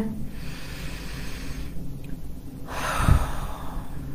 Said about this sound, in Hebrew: ואני רוצה רגע שתעצמו עיניים. תיקחו נשימה עמוקה מהאף ותוציאו מהפה.